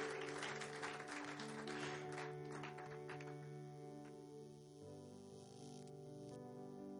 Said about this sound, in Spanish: Dele un aplauso bien fuerte a nuestro Dios. Fuerte, fuerte, fuerte, fuerte.